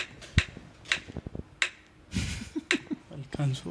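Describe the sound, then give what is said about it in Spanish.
Several sharp, bright clicks land at uneven, spread-out intervals as a prize wheel with five options ticks while it slows, with people talking underneath and between the ticks. “Me encanta esa ruleta. Oye, es real.”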